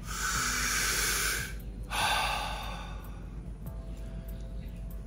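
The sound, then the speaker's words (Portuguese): A slow, deliberate breath: a long airy inhale, a brief pause, then a softer drawn-out exhale, with no talking. “A respiração ela é uma inspiração e depois a expiração.”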